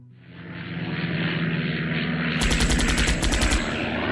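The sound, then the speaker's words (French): A German airplane's engine roars loudly and steadily, then a rapid burst of machine-gun fire rattles over it for about a second before the engine drone continues. “Un avion allemand”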